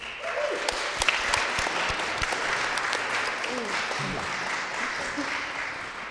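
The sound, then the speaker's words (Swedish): Warm applause from an audience thanking the guests at the end of a Mitt i allt recording, a steady dense wash of many hands clapping at an even level for several seconds, with faint voices murmuring underneath. “Eh, varm applåd.”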